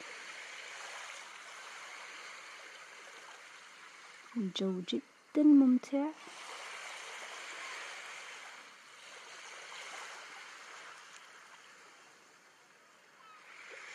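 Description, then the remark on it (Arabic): A steady wash of sea waves rolling onto the shore, swelling and easing throughout, with a man speaking briefly partway through. “نتخيل الآن أننا في جزيرة من جزر المالديف مستلقين أمام بحر الجو رائع على هوا ما تحبون سواء كان الهواء الجو ممطر أو جو صافي حوالينا نخيل صوت الموج”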